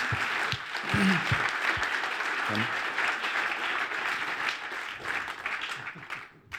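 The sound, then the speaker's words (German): A crowd breaks into sustained applause to welcome guests, a dense wash of many hands clapping at steady loudness, with a few brief low cheers or calls underneath, before tapering off at the end. “Geben wir ihnen doch ganz herzlichen, warmen Applaus, dass sie da sind.”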